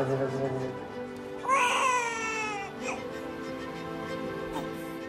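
A newborn baby girl, just delivered by her mother, cries in short, strained wails, the loudest burst rising in the middle, with faint background murmur around it.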